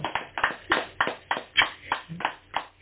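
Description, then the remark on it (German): A small group claps hands in a quick, uneven burst of applause, about ten sharp claps in under three seconds, with no talking. “Äh, ja, also wir haben gerade geklatscht”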